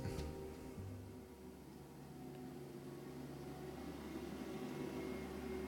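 A garbage truck rolls by outside, a steady low engine drone with a faint mechanical hum, muffled, holding at an even level throughout with no voices.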